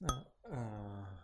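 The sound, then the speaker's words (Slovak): A single bright clink of red wine glasses touching in a toast, brief with a short ringing tail, followed by a person's drawn-out voice. “Tak na zdravie.”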